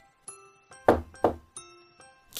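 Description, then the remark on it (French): Two heavy knocks on a door, spaced about a third of a second apart, set among softer ringing, chime-like tones that sustain and fade: Little Red Riding Hood knocking at the door of her grandmother's house. “Ensuite, il ferma la porte et s'alla coucher dans le lit de la mère Grand, en attendant le petit chaperon rouge qui, quelque temps après, vint heurter à la porte”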